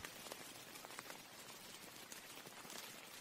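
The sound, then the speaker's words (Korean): Heavy rain pours steadily at about 2 a.m. onto forest leaves and a poncho-covered helmet at a military guard post, a dense, continuous hiss with scattered sharper drop patters throughout, constant, with no voices present. “반초 우위로 덮은 헬멧 위로 떨어지는 빗소리, 주변 숲의 나뭇잎을 강타하는 빗소리가 너무나도 크게 들려왔다.”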